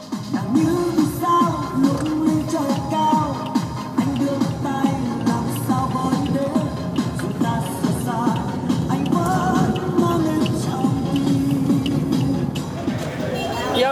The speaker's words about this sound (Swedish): Sätter han på någon så här diskomusik, någon vietnamesisk diskomusik. Så här lät det i taxibilen. Det här är min egna inspelning från min telefon i smyg.